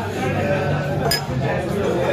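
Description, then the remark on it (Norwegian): Drinking glasses clink together in a toast, one bright sharp chime standing out over a steady murmur of crowd noise and indistinct voices. “Glassene, glassene som klingrer.”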